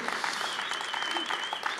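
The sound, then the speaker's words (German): A crowd claps steadily in dense, continuous applause, with a few cheers and whistles rising above it, at moderate loudness, celebrating a team for what it has accomplished. “Dieses Team ist der Knaller und jetzt könnt ihr mal kurz ausflippen, dass sie das hier für uns hingekriegt haben.”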